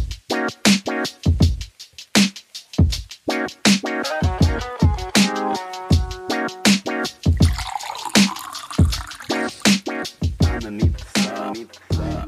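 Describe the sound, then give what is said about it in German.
Tea or water pours into a cup, with clinking, dripping splashes and a gurgling tone that rises in pitch as the vessel fills. No one speaks. “Ich meine, wir sitzen ja auch hier mit einer Tasse Tee, einem Glas Wasser, also es passt schon. dieses Geräusch könnte ganz realistisch in der Folge auch nochmal erscheinen.”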